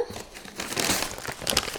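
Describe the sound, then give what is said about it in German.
Continuous crinkling and rustling of a paper bag, one of three, being pulled out of a cardboard box, with sharper crackles bursting through near the end; no voices. “So, ich sehe drei Tüten. Die ziehe ich jetzt mal hier raus.”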